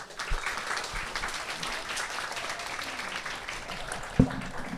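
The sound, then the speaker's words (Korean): Steady applause from an audience at a first-anniversary event for the musicians who performed, a dense wash of many hands clapping for about five seconds, with a sharp thump near the end and no one speaking. “박수 한번 보내 주세요.”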